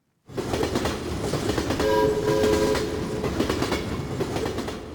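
A train rumbles steadily along the rails with a loud, continuous clatter, and a short horn blast sounds partway through. No one speaks.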